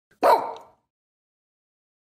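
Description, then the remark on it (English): A single loud dog bark from a dog called Eugene, being told to sit, rings out sharply and trails off quickly, followed by silence, with just the start of another sound at the very end. “Good dog.”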